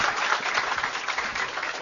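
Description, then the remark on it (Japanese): Steady audience applause welcoming guest author Akihiro Nakatani at a book event, a dense wash of many hands clapping at an even, sustained level throughout, with no voices standing out above it. “はい、えー、中谷さん、えー、もう一度盛大な拍手で、よろしくお願いします。”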